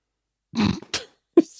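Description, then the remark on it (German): A short sniff up through the nose, wedged between a low throaty snort and a brief squeaky nasal sound, with no talking. “musste die Nase hochziehen in dem Fall.”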